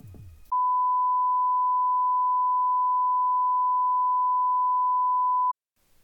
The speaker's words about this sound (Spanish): Por si no lo sabías, al final de este pitido tan molesto, Siempre procuro poner una frase de estas típicas, ¿no?